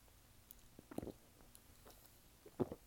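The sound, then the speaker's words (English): Someone quietly sips lemonade, with two soft gulping swallows about a second and a half apart against near silence. No one speaks. “As I take a sip of my, my lemonade there.”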